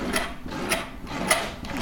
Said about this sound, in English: You're winding up the, f- the gramophone now, yeah? I'm winding up the old 78 here